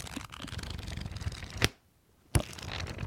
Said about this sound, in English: Have you read it yet? Even even even the pages sound old.